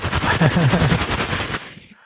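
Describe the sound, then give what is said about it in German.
Packaging material is rustled and crinkled in a loud, dense burst of rapid crackles lasting about one and a half seconds, then stops abruptly and fades, with a faint voice murmuring underneath. “Nee, aber ich kann hier rascheln raten, mit dem Verpackungsmaterial.”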